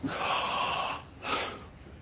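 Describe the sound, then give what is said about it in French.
A deep breath drawn in slowly for about a second, a brief pause, then a shorter, breathy exhale, clearly audible with no talking. “Quand je veux respirer, je respire et à un moment donné, qu'est-ce que je fais je repousse la respiration.”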